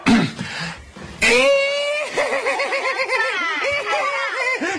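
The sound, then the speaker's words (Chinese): A man's voice imitates a horse's whinny, starting with a short breathy snort, then a long, high, wavering neigh that warbles up and down in rapid pulses for several seconds. “我会学马叫。”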